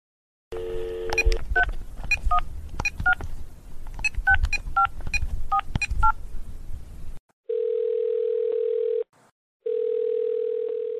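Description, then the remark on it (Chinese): A rapid run of telephone keypad tones, each short two-pitch beep following quickly after the last, then a steady hum of dial tone that briefly cuts out before resuming. No one speaks. “您好，欢迎来电荒唐小姐欧贝公频道。”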